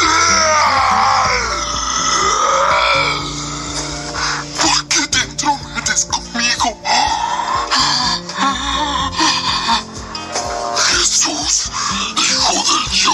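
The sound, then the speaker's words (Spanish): A man lets out a loud, anguished scream with a wavering, strained pitch, then breaks into ragged shouts and groaning bursts that continue intense throughout. “Dando un alarido, gritó.”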